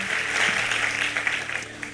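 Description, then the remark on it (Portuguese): A church audience stands and claps steadily together, a dense rush of overlapping hand claps at even loudness throughout, with a faint low hum beneath. “Vamos aplaudi-lo, vamos ficar em pé.”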